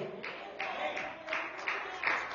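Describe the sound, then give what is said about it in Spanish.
A crowd claps together in a steady, rhythmic beat, the dense hiss of many hands swelling with each pulse, with murmuring voices underneath. “Si ese aplauso para mí, está bueno, pero siempre la Dios tiene artritis y eso lo con fuerza.”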